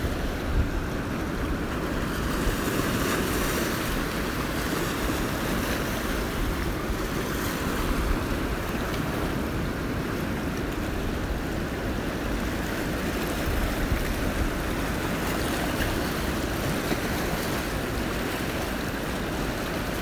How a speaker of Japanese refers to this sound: 自然が作り出す打ち寄せる波の音はあなたをリラックスさせてそしてあなたの潜在能力を引き出します